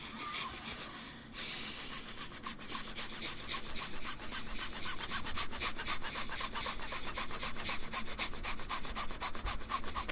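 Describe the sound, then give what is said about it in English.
Rapid, forceful breaths pumped out through the nose in a steady, quick rhythm, several per second, fairly loud, continuing without pause for several seconds with no talking: the yogic breath of fire, a pranayama breathing exercise. “Inhale, breath of fire.”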